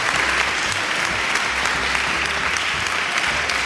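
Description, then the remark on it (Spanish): Sustained applause from an audience fills the whole stretch, a dense, steady wash of clapping at constant loudness with no speech over it. “Lo primero, unos aplausos.”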